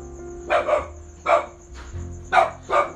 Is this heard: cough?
no